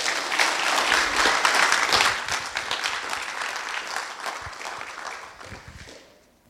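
An audience claps steadily, a dense wash of many hands that stays loud for several seconds before thinning and fading out near the end.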